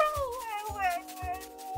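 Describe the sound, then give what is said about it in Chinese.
A fierce wild dog, running past with a white rabbit in its mouth, howls in a long, wavering, wailing tone while three short, deep barks punch through at an even pace beneath it. “突然有一只凶猛的野狗叼着一只白兔从旁边跑去。”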